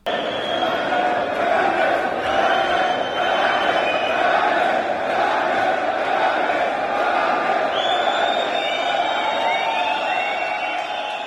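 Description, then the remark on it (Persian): A large crowd of shopkeepers at the Charsou shopping arcade in Tehran, Iran, chants and shouts together in protest against currency fluctuations and high prices, a dense, continuous, loud roar with voices rising and overlapping throughout and occasional whistles cutting above the din. “این صدای برخی از کسبه پاساژ چارسوی تهران بود جایی که پیش از ظهر روز یکشنبه این هفته اعتراضها به نوسانات ارزی و گرانی اجناس از اونجا آغاز شد و در روزهای بعد به بازارهای مختلف تهران و برخی از شهرهای دیگه هم رسید.”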